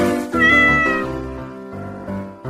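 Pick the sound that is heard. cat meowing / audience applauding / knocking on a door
cat meowing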